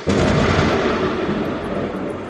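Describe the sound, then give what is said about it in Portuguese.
A sudden, loud thunder clap from a lightning strike bursts in and rolls on as a heavy, rumbling roar that stays strong for a couple of seconds, with no voices. “veio pulando com medo do raio.”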